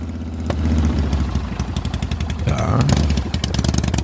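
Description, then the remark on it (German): A four-stroke motorcycle engine idles with a steady, low, lumpy chugging, its rapid regular pulses clattering along; the pitch rises briefly as the throttle is blipped partway through. “ist ein Viertakter eindeutig.”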